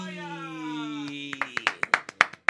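Short burst of applause: about eight sharp, uneven claps close by, following a sustained held tone that fades out as the clapping begins.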